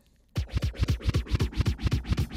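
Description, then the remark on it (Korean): After a brief near-silent moment, a dance track intro kicks in with a fast, punchy beat: steady, loud thumping pulses with bright crisp hits on top, no voices. “귀에다 꿀을 발라주시는 이분, 이 시대의 최고의 댄스곡 듣고 오시죠.”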